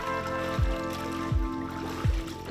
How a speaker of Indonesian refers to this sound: Setelah itu, ketan dicuci kembali di air mengalir selama 30 menit.